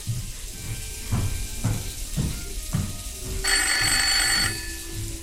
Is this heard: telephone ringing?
yes